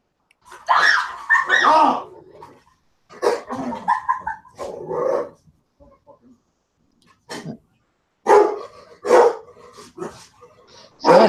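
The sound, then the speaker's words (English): A large dog barks in loud bursts, several barks clustered in groups with short pauses between them, deep and full-bodied. “That sounds, sounds like a big dog.”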